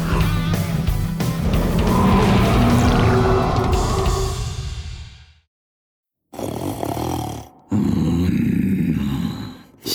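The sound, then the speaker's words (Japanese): A giant long-necked plesiosaur, about the size of an island, snores while sleeping on the sea floor, a deep, loud, rumbling roar that swells for several seconds and fades, then after a brief silence returns in two more heavy, growling bursts. “島一つ分はありそうな巨大な首長竜は海の底でいびきをかいて眠っています”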